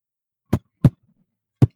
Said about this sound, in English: Archibald turns, sees Andreas running, and everything kind of slows down for him as we can hear his heartbeat.